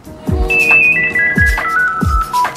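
A telephone rings in an apartment with an electronic ringtone melody, a stepping run of bright tones over steady low thumps, fairly loud, with no voices.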